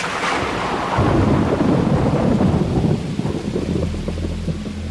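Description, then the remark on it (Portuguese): A thunderstorm at night with steady rain hissing throughout and a deep rolling rumble of thunder swelling loudly in the middle, then fading into a low continuous growl. No voices. “Um casal vinha dirigindo rápida e loucamente numa noite de tempestade numa cidade estrangeira e sem sinal de celular.”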